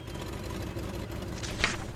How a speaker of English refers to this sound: Dad starts the car.